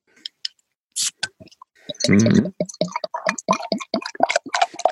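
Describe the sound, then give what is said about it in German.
A bottle of warm beer is opened: a few small clicks and taps, then a short fizzing hiss, followed by a rapid run of bubbly, dripping liquid sounds. Someone murmurs briefly. “Aber ich denke mal, du hast gerade erzählt vorhin schon im Vorgespräch, dass dein Bier recht warm ist. Also können wir gerne anfangen, dass du mal mit deinem ersten loslegst. Also ich mach's mal auf, okay?”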